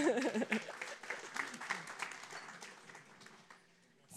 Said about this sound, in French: Mais bravo. Merci d'être là. On peut s'applaudir tous ensemble.